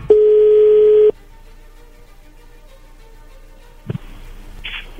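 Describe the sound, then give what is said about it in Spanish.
A telephone ringing tone sounds once as a phone call is placed: a loud, steady, mid-pitched beep lasting about a second, followed by near silence and then a brief muffled clatter and rustling at the end. “Bien, a ver, vamos a, vamos a marcarle, no haga ruido, por favor.”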